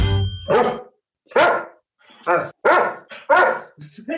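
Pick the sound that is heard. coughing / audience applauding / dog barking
dog barking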